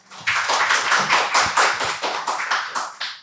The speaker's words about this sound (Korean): 박수 소리가 너무 다른 거 아니에요? 감사합니다, 약간, 여러분. 약간의 차이를 느낄 수 있는데, 느낌이.